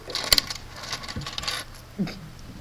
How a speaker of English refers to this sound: So anyway, um, yeah, you just recorded the keys on the desk. That sorry, the keys were there. I bet that sounded real good in their it ears. Did sound good, didn't it?